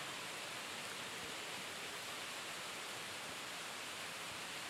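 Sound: rain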